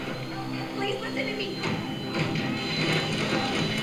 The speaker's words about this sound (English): What is that? Is oh, that a saw? Oh, it's a fucking sander. A belt sander.